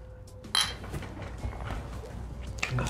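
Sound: cups clinking together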